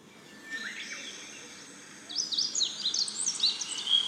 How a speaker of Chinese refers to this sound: 好，这是鸟叫的声音，再来。